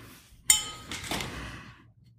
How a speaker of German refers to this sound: Wir fangen jetzt einfach mal mit dem Italiener an, mit dem Salbanello und gießen uns die mal ins Glas und schauen uns dann als erstes mal die Farbe an.